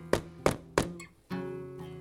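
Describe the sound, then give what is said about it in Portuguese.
Three loud, heavy knocks pound forcefully on a door in quick, evenly spaced succession, each with a deep thudding body, followed by a sustained, steady low tone; from a telling of the Bluebeard tale. “Naquele momento bateram a porta com força.”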